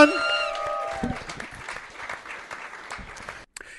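A brief sustained musical tone fades out as an audience breaks into steady, dense applause that carries on for a few seconds, then cuts off abruptly with a short final burst.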